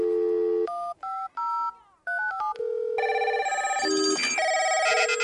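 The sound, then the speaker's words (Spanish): A rapid sequence of electronic telephone keypad tones as a phone number is dialed, each beep a short steady dual pitch, some held longer, with brief gaps between clusters; loud, no voices. “Es momento de responder la pista y llamar.”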